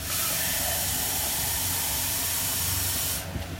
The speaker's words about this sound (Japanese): もうすぐ野菜がちょうど火が通ったのでこれからお湯をですね 500ml 入れなさいっていうふうにしてねお湯を入れていくんですけど